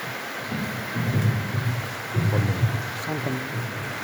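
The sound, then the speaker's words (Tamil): Heavy, unrelenting rain pours down in a steady, unbroken hiss as people gather, with deep low rumbles and muffled voices rising and falling beneath it. “அனைவருக்கும் வணக்கம் இந்த விடாத மழையிலையும் நீங்கள் எல்லோரும் வந்திருக்கிறது கொஞ்சம் எனக்கு நல்ல சந்தோஷமாக இருக்குது”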